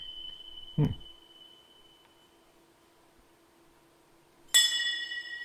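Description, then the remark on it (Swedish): Two small iron saucer-shaped plates, joined to each other by a leather cord, are struck together twice, a few seconds apart. Each strike rings out with a bright, sustained metallic clink, and the second hit sounds sharper and louder. A brief murmur is heard. “Och sen så har vi också eh, några mindre tefat eh, som låter så här.”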